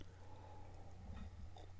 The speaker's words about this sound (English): Oh, there's some tea in here. Let me take a sip.